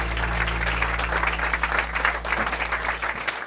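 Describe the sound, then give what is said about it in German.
A live audience applauds steadily, a dense patter of many hands clapping at once that holds for a few seconds before fading out at the end. The audience is at a live talk with Sigmar Gabriel aboard the Pioneer One on the Spree in Berlin's government district. “Dort haben wir dieses Gespräch vor einem Live-Publikum geführt.”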